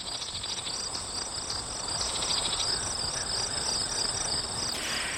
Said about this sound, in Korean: 여름과 가을의 콜라보레이션 듣고 있으면 기분이 묘해요 하셨는데 우리 홍범 PD님이 귀뚜라미 소리를 틀어주셨으니까 저희 눈 감고 잠시 같이 들어볼게요.